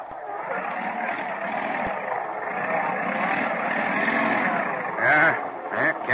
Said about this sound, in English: Snow drift deep in the foothills of the Rocky Mountains, and cars braving the storms face a real struggle. Forty minutes later, as the school bus plows into a bad drift. Yeah, sounds like something broke.